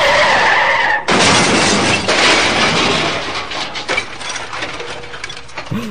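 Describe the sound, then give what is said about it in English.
A loud tire screech gives way to a sudden, violent crash of crunching metal and scattering debris that rumbles on for several seconds, with no talking. “so we get a really awkward car scene next, where More the like car crash.”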